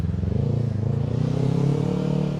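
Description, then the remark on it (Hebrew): A motorcycle engine drones loudly, its low rumble rising slightly in pitch and volume before easing off a little as it rolls past, with no voices. “אה, אופנוע זה גם אהבה גדולה.”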